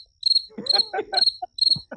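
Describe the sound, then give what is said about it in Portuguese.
A cricket chirps loudly in a steady repeating rhythm of shrill pulses, about four bursts over two seconds, with some faint low rustling or handling noise underneath. “Cara, pegou na mão agora o grilo, hein?”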